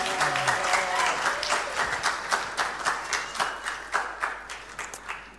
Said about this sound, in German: Ein Applaus für die Ranger. Richtig stark.